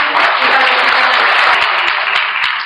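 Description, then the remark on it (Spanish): Dense, steady applause from an audience, many hands clapping at once in a continuous bright wash that holds at a strong level throughout, easing slightly at the very end. “Un aplauso para ellos.”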